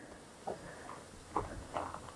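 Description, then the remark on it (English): A horse walks slowly across a mountainous area where horses graze: three soft, irregular hoof thuds on the ground, fairly quiet against a faint outdoor background hiss, with no one speaking. “There's Ruby walking across. The horses are just grazing a little, looking for some old hay”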